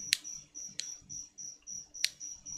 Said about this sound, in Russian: Сверчки, к сожалению, слышны. Но это просто я не люблю шумы всякие.